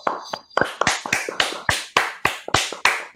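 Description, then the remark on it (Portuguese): A short round of applause from two hosts welcoming a guest: steady, fairly loud hand claps in a quick, even rhythm, sounding like just a couple of people clapping, with no voices. “prazer estar aqui, ainda mais sendo recebido por vocês dois com uma salva de palmas.”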